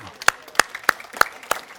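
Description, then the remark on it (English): An audience at a service claps together for the Lord, in thanks, in a steady, even rhythm, five sharp, crisp claps about a third of a second apart, with a faint murmur underneath. “now, would you just give the Lord a big clap and thank Him?”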